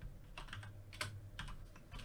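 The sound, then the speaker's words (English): Several quiet, sharp clicks from a computer mouse or keyboard, clicking on China in an economic complexity ranking, come at irregular intervals, with a low steady hum underneath and no talking. “Oh, I'm clicking on China.”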